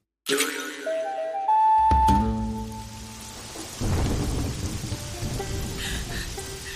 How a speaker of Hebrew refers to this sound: יורד גשם.